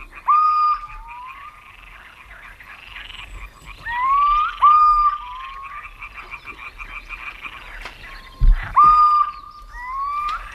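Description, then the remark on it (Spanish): A pulsing chorus of amphibians croaks and trills steadily throughout at night, with short clear whistled notes of little owls (mochuelos) recurring every few seconds above it and no one talking. “Y al fondo un coro pulsante de anfibios.”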